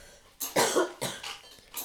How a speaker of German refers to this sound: hat noch ein bisschen Husten.